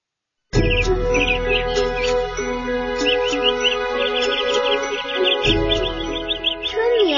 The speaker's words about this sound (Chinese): 处处闻啼鸟